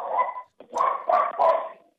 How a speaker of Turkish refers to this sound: Köpek geliyorsa kapatabiliriz efendim. Bu ne köpek sesleri? Sizin mi köpek? E, evimin en küçüğü.